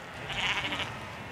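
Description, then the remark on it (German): A single sheep bleats once, a wavering, nasal call lasting about half a second against a quiet outdoor background, in the mountainous southwest of New Zealand. “Berge, Schafe, Wasserfälle.”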